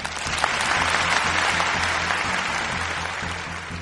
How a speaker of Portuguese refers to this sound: E eu acho que a Devolver assim, ó, merece muitas salvas de palmas para essa notícia.